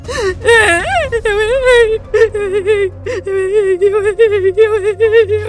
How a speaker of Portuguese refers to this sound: E a terapeuta começou a chorar copiosamente.